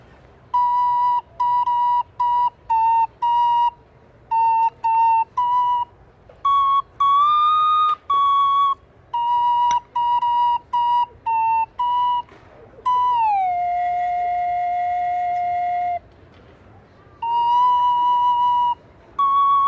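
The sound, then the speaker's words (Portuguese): A small flute plays a quick, bright melody of short staccato notes, with one long held note that slides slightly downward before the tune resumes. No one speaks. “Eu vou tocar uma flautinha e você vai me falar se ela é mais legal do que o funk ou não.”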